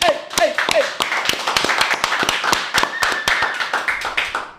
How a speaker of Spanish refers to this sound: Ok, son un equipo. Entonces, vamos a despedir con un fuerte aplauso